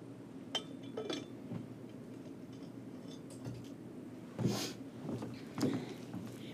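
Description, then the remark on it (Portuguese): Several light glassy clinks and taps of a glass as someone drinks water, spaced irregularly, with a couple of brighter knocks near the end, over a low steady hum and no speech. “Vamos lá, beber uma água também.”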